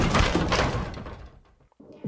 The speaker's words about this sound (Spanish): Alcanza a escuchar el forcejeo dentro de la habitación del lobby, y sin dilación arremete contra la puerta con su hombro. El primer impacto solo logra dañar un poco el seguro de la puerta, pero un segundo golpe termina por abrirla de par.